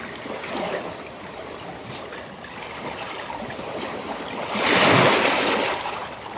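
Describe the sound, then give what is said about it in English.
Continuous rushing water from Lake Superior waves washing over rocks in the morning, moving back and forth, with a louder surge swelling and breaking near the end before settling back into steady churning. No voices. “Watching how the rocks and the waves work together.”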